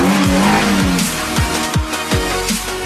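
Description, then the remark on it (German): A motorcycle engine revs in a rapid, rhythmic series of about six falling 'vroom' swells, loud, over a steady hiss, with no one speaking. “Also, bevor es gleich weitergeht, alleine schon diese Musik und ich weiß nicht, so eine Art Motorrad im Hintergrund, so wum, wum.”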